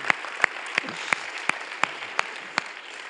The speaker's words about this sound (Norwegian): Ja, dere kan få lov til å klappe for det.